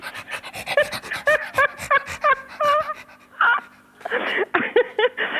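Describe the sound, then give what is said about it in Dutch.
A two-year-old dog makes a rapid run of short, whiny, pitched yelps and moans that rise and fall as it tries to say the word "Remia", followed by a few louder, rougher vocal bursts. “Hij praat dus ook, hè.”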